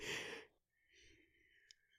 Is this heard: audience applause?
no